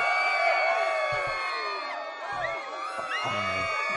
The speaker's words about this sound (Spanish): vamos a aplaudir, vamos a hacer cosas. Mira, vamos a poner aquí celebración a tope. Mira, aquí.